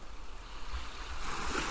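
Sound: sea waves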